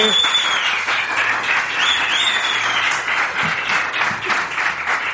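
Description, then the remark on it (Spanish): A crowd applauds steadily for several seconds for the students of a basic training centre in Basauri, a dense, even wash of clapping hands with some faint whistles or cheers mixed in, no talking over it. “Vamos a aplaudir a los chicos y las chicas del Centro de Formación Básica de Basauri.”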